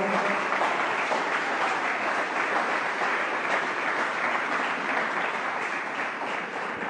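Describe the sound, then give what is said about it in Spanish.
An audience applauds steadily as an applause offered to God during a Spanish-language sermon, a dense, continuous wash of many hands clapping at an even loudness for several seconds, with no voices rising above it. “Dale un aplauso a Dios si quiere hacerlo, por favor.”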